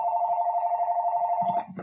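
A steady electronic telephone ring tone holds for over a second and a half, then cuts off abruptly as a faint voice comes in underneath.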